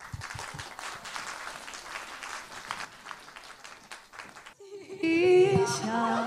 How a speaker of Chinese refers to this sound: 所以我们再次掌声有请我们的五位演员回到舞台上，好不好？